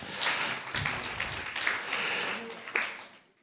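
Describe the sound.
A steady burst of audience applause at an evening event, welcoming a sports physiotherapist from the French Water Ski and Wakeboard Federation, dense crackling claps sustained for a few seconds before tapering off at the end, with a murmur of voices underneath.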